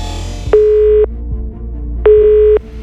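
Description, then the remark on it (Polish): A telephone line tone sounds in two steady, identical beeps about half a second long, separated by a pause, over a low background hum, heard through a payphone receiver as a man calls the police from a phone booth. “Zatrzymuje się przy budce telefonicznej i dzwoni na policję.”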